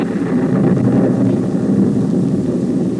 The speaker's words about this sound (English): Our sound effects man is merely helping me illustrate for our listeners the little known fact that it can rain inside your watch.